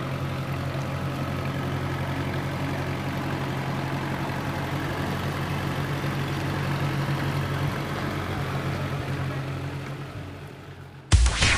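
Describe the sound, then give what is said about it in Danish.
A Ferguson tractor, a vehicle typical of Danish farms 50-60 years ago, runs steadily at idle with a low, chugging drone, loud throughout, then fades and cuts off abruptly near the end. No one speaks. “Da jeg var på vej hen mod min cykel for at øh, køre hjem igen, der kom der et køretøj, meget typisk for et dansk landbrug for 50-60 år siden, nemlig en Ferguson-traktor.”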